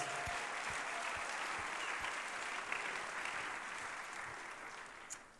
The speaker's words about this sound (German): Yes, wir geben Applaus.